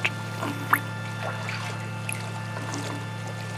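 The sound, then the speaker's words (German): Water pours and trickles steadily, rising and wetting a curtain, over a low, constant hum, with a few sharp drips and splashes breaking through now and then. No voices. “Der Vorhang wird nass, das Wasser steigt, steigt, steigt, steigt, steigt.”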